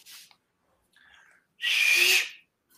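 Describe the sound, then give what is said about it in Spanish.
A single short, breathy confirming whistle rings out fairly loud, lasting under a second, with only faint brief rustles before it and no talking. “Chiflido confirmador.”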